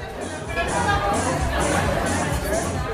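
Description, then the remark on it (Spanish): A steady, muffled crowd murmur from a bar, heard from a distance, with overlapping voices and shouts blending into a continuous babble, and faint scattered clatter of domino tiles and glasses clinking together in celebration beneath. “Las fichas de dominó se oyen a lo lejos, casi como un susurro acompañado de gritos y vasos golpeándose para celebrar la joven y misteriosa noche.”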